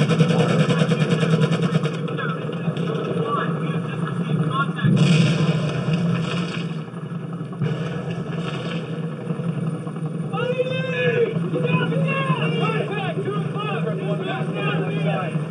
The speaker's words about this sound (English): This is Iraq, and I'm going to turn the sound on now. Okay. So the helicopter sound is definitely jarring.